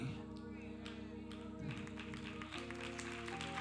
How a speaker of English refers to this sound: I'm gonna make everybody clap for that. Everybody.